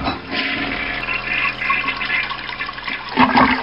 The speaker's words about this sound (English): we began to hear subtle sounds sounds of water backing up, overflowing from the nearest bathroom commode.